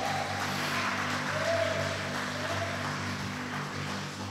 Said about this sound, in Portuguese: E aqueles que têm certeza que vão estar lá, pode aplaudir a Jesus bem alto.